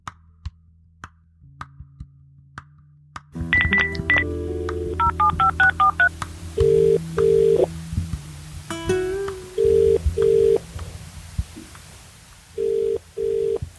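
A quick series of telephone keypad tones as a number is dialed, followed by several short, evenly spaced electronic beeps and a low hum in the background, with no one speaking.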